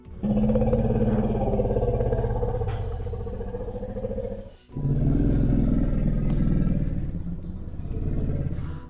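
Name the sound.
elephant call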